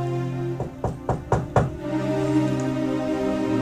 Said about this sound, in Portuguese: Quando de repente escutei aquelas batidas assim na porta.